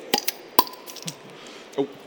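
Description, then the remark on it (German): A flip-top bottle of an alcohol-free drink snaps open: a couple of quick clicks as the wire clasp is levered, then a sharp pop with a brief ringing tone, and a softer clink at the end. “Und deswegen haben wir immer ein Plop-Getränk Alkoholfrei natürlich.”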